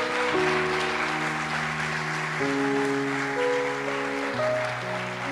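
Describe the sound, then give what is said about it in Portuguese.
A church audience applauds steadily for several seconds, giving a round of applause to God, a dense, even wash of clapping over sustained keyboard chords that shift a few times underneath. “Se você crê nisso, dê uma salva de palmas a Ele.”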